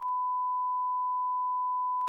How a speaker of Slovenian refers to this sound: Ok, jaz se iskreno upravičujem za drugo blipanje.